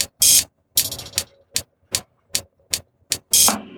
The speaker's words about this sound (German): Also, drücken auf einen Knopf. Der Fahrstuhl geht.